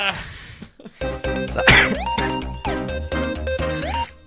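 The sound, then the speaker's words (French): A single short, breathy cough bursts out at the start, then a bright, rhythmic musical jingle with steady pulsing bass takes over for the rest. “T'as toussé, c'est parti.”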